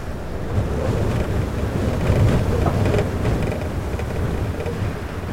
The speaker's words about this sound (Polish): Na hali gąsienicowej byłem w sobotę na krótko przed wypadkiem na uchrociu Kasprowym i także dzień wcześniej w piątek po południu. Wtedy już w Tatrach wiał porywisty wiatr, gęsto sypał śnieg.